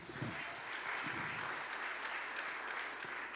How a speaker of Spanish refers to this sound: Vamos, darle un aplauso fuerte al Señor.